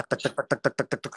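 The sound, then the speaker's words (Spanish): A voice mimics a knife chopping on a wooden board with about eight quick, evenly spaced syllables in a steady rhythm, fairly loud, with nothing else underneath. “escucho cómo empiezan, no sé si este de cuando pican cosas en una tabla de madera.”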